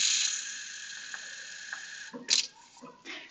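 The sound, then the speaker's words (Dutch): A steady stream of water is poured into a glass, a bright hissing trickle lasting about two seconds, then a few soft clinks and bumps as the pouring ends. “Even water inschenken.”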